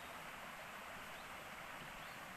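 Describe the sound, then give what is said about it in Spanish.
A steady, unbroken rush of river water flowing downstream, with a soft hiss that stays even throughout and no voices or other sounds. “Del río cuando baja. El agua fluir.”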